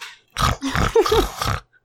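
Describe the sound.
A voice imitates a man's loud snoring heard while driving: a quick string of four or five rough, rumbling grunts with a piggish, snorting quality, heard alone with no talking.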